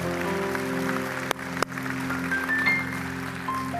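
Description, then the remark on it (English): An audience applauds steadily, a dense wash of many hands clapping at once over sustained keyboard tones, with a couple of sharp knocks partway through and no one speaking. “Come on, let's give all of them a big round of applause.”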